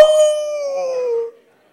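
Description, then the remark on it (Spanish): A man imitates a wolf with a single sustained howl, a steady wavering tone held for over a second before dropping away abruptly, fairly loud. “Y que ya no era el mono, sino que de un lobo. ¡Au!”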